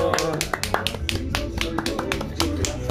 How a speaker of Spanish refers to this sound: ¡Eh! ¡Fuerte el aplauso!